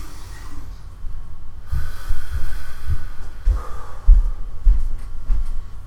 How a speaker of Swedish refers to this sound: Vänta lite, vi, tar 10 sekunders paus. Andas ett djupt med näsan. Andas djupt med näsan och ut genom näsan. Så här.